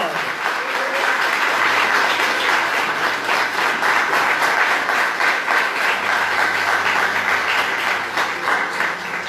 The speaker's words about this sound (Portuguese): Vamos aplaudir o Senhor, vamos aplaudir o Senhor. Aplauda o Senhor, irmão.